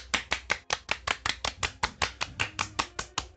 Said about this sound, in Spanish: Muy bien, güey, aplausos. Sí, aplausos.